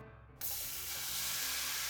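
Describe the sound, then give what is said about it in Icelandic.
Pancakes frying in a pan: a steady sizzling hiss that starts abruptly after a brief low hum and continues loud and even to the end, with no voices. “Eitt daginn var mamman að steikja pönnukökur og notaði til þess öll sín bestu ráefni.”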